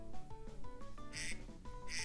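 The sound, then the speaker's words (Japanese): A duck-shaped kitchen timer goes off with a run of nasal, quacking electronic squawks in a bouncy rhythm, with bright high chirps bursting in twice over the steady honking pattern. “あタイマー鳴っちゃったすいませんちょっとアヒルタイマーでした”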